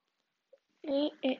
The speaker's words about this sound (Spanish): Y si escuchan soniditos raros, ese es el chanchito que vive atrás de mi casa, porque en el campo.